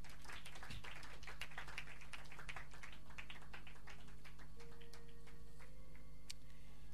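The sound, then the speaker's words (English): Scattered hand clapping from a group at a Global Leadership Service after a prayer, sharp irregular claps that are dense at first, then thin out to a few isolated claps, over a low steady hum, with no talking. “Clap your hands and take your seat.”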